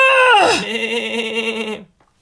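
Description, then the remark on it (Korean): A single loud, quavering bleat from a startled baby black goat as it struggles, starting high and dropping into a long wavering cry that lasts nearly two seconds, with no talking. “놀란 아기흑 염소가 발버둥을 치자”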